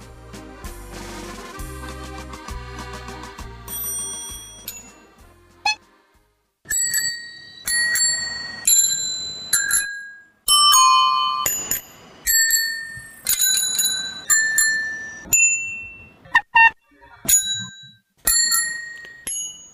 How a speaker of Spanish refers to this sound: Esto que suena son timbres de docenas de bicis de Ámsterdam, donde hay pues más bicicletas que coches.